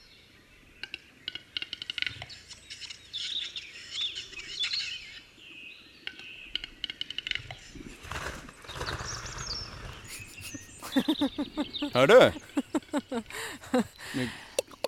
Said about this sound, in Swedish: Mm, vad är det? Det är en sorts fågel. Det är en tjäder.